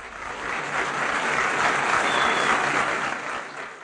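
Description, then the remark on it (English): An audience at an award ceremony applauds Fiji Times editor Netani Rika as he wins this year's PINA Media Freedom Award for the Pacific region, with steady, dense clapping that holds at a fairly loud level for several seconds before tapering slightly at the end. No one speaks over it. “Fiji Times editor Netani Rika has also experienced firsthand the perils of working under censorship and won this year's PINA Media Freedom Award in the Pacific region to much applause.”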